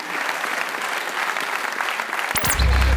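A crowd at Hanover College claps steadily, a dense, even patter of many hands for a few seconds, before a low hum and a brief sweeping tone cut in at the end.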